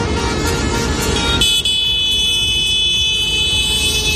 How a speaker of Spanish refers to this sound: Es el sonido de centenares de tractores marchando hacia París. En menos de una hora, los agricultores prometen bloquear la capital francesa a través de las siete arterias principales de la capital y de forma indefinida.